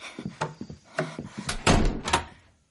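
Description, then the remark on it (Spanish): A door is handled with a few quick clicks and rattles, then swings and shuts with a couple of heavier thuds, moderately loud, with no talking, as a man removes the table barricading it and opens it to let another man in. “Abre la puerta, coge a Jesse del brazo y lo hace pasar.”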